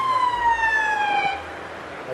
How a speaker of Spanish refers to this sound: va una ambulancia